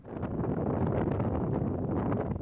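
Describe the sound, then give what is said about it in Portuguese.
Strong wind roars steadily over a wildfire, spreading soot: a dense, rumbling rush with faint crackling flickers mixed in. No voices are heard. “O vento espalha fuligem.”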